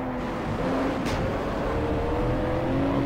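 A car engine in a racing game hums steadily and slowly builds in pitch as it accelerates, loud throughout, with no voices over it.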